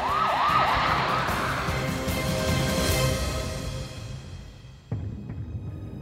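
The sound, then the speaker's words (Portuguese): Police sirens wail with rising and falling sweeps amid broad traffic rumble, growing fainter as they recede into the distance, followed near the end by a sudden dull thud. “De dentro do carro, Jamie conseguiu ouvir barulhos das sirenes, que foram ficando cada vez mais distantes.”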